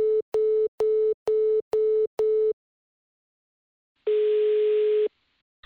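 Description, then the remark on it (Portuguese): A telephone line tone after a dropped call: six quick, evenly spaced beeps, a pause of silence, then one longer steady tone, loud and clear with no voices. “Caiu a ligação, foda.”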